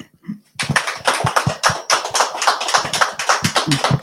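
An audience bursts into applause after a brief quiet moment, many hands clapping in a dense, steady patter that holds at an even, lively level throughout.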